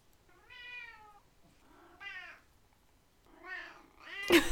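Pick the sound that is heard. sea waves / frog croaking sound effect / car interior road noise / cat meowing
cat meowing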